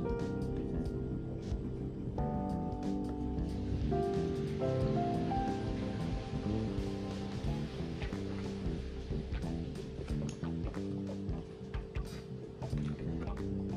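Water splashes steadily into a bottle, filling it halfway, a continuous gurgling stream whose hollow resonance shifts in pitch as it fills, with no talking over it.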